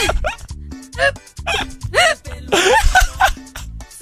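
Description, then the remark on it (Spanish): A string of sharp, voiced hiccups, roughly one every half second, each a short abrupt yelp-like burst, fairly loud, with some vocal sounds blending between them. “¿Cómo se quita el hipo?”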